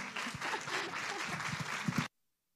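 Audience applause after a testimony, given also for Christ, a dense steady patter of many hands clapping for about two seconds, with a few sharper claps standing out, then cutting off abruptly into silence.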